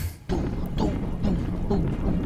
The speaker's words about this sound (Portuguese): aqueles passos pesados que levemente dá para sentir no chão pelo cavalo. Você, que, que tá com os pés no chão, sente com muito mais potência isso